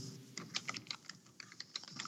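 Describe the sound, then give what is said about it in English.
Rapid, forceful typing on a computer keyboard while replying in a chat room, with a quick, uneven stream of sharp plastic clacks and no voices. “I'm hammering my keyboard because yeah.”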